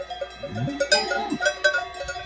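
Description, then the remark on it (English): A herd of cows wearing cowbells high up in the Swiss Alps, several bells clanking irregularly at different pitches, with a low lowing call in the middle, outdoors. “We're high up in the Swiss Alps, and that sound that you're hearing is a herd of cows wearing cowbells.”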